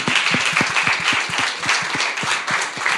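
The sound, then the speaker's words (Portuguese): An audience applauds steadily, a dense patter of many hands clapping at once with irregular sharp claps standing out, sustained at a fairly even loudness throughout. “Vamos aplaudir, né, gente?”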